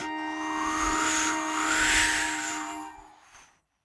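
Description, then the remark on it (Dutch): Wind whistles in a steady, rushing gust, its airy tones swelling and sliding in pitch before the whole sound fades away after a few seconds. “De wind fluit eventjes en neemt een aanloopje.”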